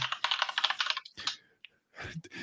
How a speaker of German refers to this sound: tippest du da gerade so auf der Tastatur? Entschuldigung, ja, alles ich habe mir nur eine Frage aufgeschrieben, weil du hast gesagt, dass, damit ich es nicht vergesse.